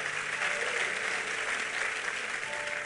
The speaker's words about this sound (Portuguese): Vamos aplaudir a ele, irmão.